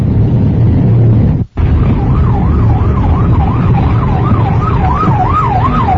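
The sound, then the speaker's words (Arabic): Steady, loud street traffic rumble in a traffic jam at 9 o'clock, with a wailing emergency siren rising and falling rhythmically over it, briefly cutting out near the start before continuing. “في زحمة الساعة 9 الآن هذا هو في زحمة”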